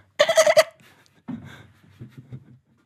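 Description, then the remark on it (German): A person's voice imitates a dolphin with a brief, loud, squeaky chattering burst. Quieter breathy chuckles and low murmurs follow. “Aber der Delfin, der Delfin denkt etwa so, ich weiß nicht, wie das jetzt auf Kommando kann.”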